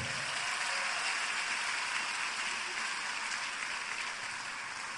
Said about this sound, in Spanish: Amén. Dale un aplauso al rey.